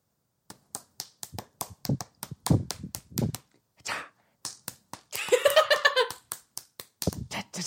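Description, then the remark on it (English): A person slaps their own bare calves with their hands in a quick, uneven rhythmic beat. Sharp smacks repeat for several seconds, briefly joined by a short burst of voiced humming or singing near the end. “Okay, that's me slapping my calves.”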